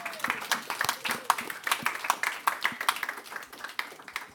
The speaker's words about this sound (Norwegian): Da, bare, da klapper vi for eh, alle de.